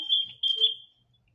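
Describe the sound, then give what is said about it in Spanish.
A shrill, high-pitched cricket chirp rings out steadily for about a second in two joined bursts, then fades to silence. No one speaks. “Es que sí, se oye mucho el grillito.”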